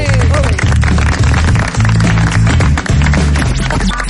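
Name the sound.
audience applause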